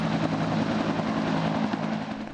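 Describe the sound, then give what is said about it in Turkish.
A Turkish military attack helicopter, sent to Nakhchivan for a joint Turkish-Azerbaijani military exercise, flies with its engine and rotor making a loud, steady droning roar with a low throbbing hum that fades slightly at the end. No voices are heard. “Bugün başlayacak tatbikatlar için Nahçıvan'a Türk savaş helikopterleri ve harekatta görevli askeri personel gönderildi.”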